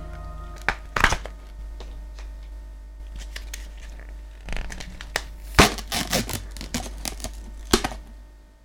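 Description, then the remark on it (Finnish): A Pringles can being opened: scattered sharp crinkling and scraping bursts as the foil lid is peeled, with no distinct pop, and no one talking. “me täällä Sipsiradion toimituksessa korkkaamme Sipsiradion historian ensimmäisen Pringlespurkin”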